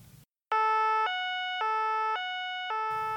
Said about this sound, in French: c'est une sirène du police.